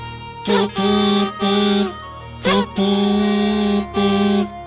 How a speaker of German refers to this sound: Und gerade als ihr denkt, dass ihr jetzt wirklich nimmer könnt und eigentlich nur noch zu Boden fallen wollt vor lauter Erschöpfung und blutenden Wunden und absoluter Verzweiflung, dröhnt von schräg hinter euch ein tutendes Geräusch.